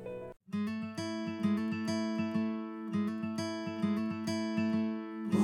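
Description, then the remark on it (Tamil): A song's instrumental intro plays on a campus radio broadcast, with bright sustained synth or keyboard chords over a steady, pulsing low rhythm. It is loud and continuous after a brief pause near the start, with no voices. “உங்களுக்காக ஒரு சூப்பரான சாங் வருது ஸ்டேட்யூன்”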